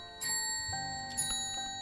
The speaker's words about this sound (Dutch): Daar heb je dat getik weer, vrouw, Ga eens kijken of er iemand is.